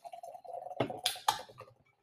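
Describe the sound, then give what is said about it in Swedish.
Beer pours into a glass, a soft gurgling stream with a few splashy bursts and fizzing surges before it tapers off. No one speaks. “Ja, jag tycker det är gott när man häller så att man hör ljudet i mikrofonen.”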